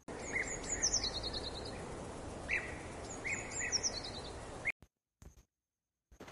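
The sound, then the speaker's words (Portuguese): Birds sing bright, trilling phrases twice over a steady rushing background like flowing water from a stream (an igarapé), then the sound cuts off abruptly into near silence with a couple of brief clicks. “A indiazinha seguiu observando o canto dos pássaros e colorido das aves que voavam perto de um lindo igarapé.”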